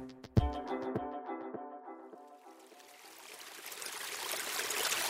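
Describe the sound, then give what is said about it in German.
A few resonant drips from pipes plink at a steady pace, then a rushing brook swells in and grows louder, its broad hiss filling the end. No voices are heard. “Rauschende Bäche, strömende Flüsse, tropfende Rohre.”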